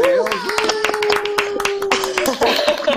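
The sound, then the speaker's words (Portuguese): Applause, dense, irregular hand claps overlapping steadily for about three seconds, welcoming guests Patrícia Tavares and Nuno Corrêa on the show Maluco Beleza, recorded with everyone at their own homes. A sustained voice-like tone carries underneath, and the claps swell again briefly near the end. “Uma salva de palmas à Patrícia Tavares e ao Nuno Corrêa. Palminhas”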